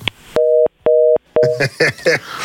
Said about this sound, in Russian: Нет, звонит телефон.